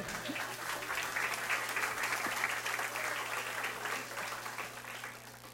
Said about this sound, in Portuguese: Dá um aplauso, dá um aplauso.